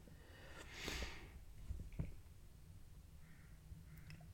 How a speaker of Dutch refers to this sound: En nou snotter ik. En mijn doekjes staan nog bij de barbecue. Dus even ongegeneerd eh, snotteren.